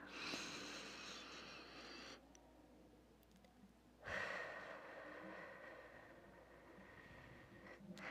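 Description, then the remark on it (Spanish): A single long, deep breath taken to close the session: a drawn-out airy inhale, a brief pause, then a slow, steady exhale lasting several seconds, fairly soft, with no talking. “Así que vamos a hacerlo de la mejor manera, en presencia y en conciencia, con una respiración larga y profunda.”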